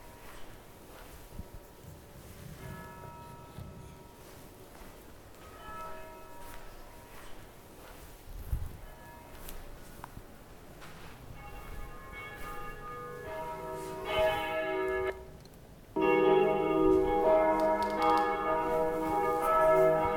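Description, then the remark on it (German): Several church bells peal together in a dense, overlapping wash of ringing tones, building steadily and swelling louder and fuller near the end, with no voices. “Dann gibt es hier noch die, oh, die Oberglocke, ne?”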